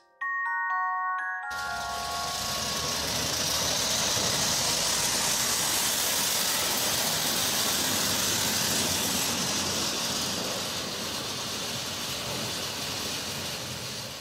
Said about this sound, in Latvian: Tā izklausās smagā tehnika, kas apstrādā kūdras purvu.